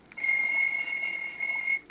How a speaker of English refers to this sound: Would you like the timer to play an alarm sound or the radio? Alarm sound.